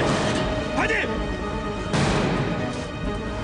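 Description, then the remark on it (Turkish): A wooden door bolt snaps with a single sharp, splintering crack partway through, loud, while a man shouts urgently over a noisy, busy background. “Ahşap sürgü kırıldı.”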